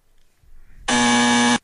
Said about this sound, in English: Hold on, where's my buzzer? I gotta get my buzzer for this one.